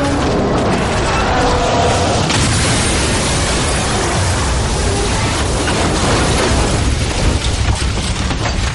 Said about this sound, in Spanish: Watson dispara el cañón derribándola